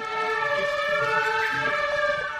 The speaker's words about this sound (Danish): De her toner, det er da en brandbil.